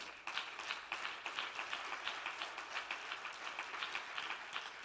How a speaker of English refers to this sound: If you want to see the greatest revival this church has ever seen, why don't you clap your hands right now?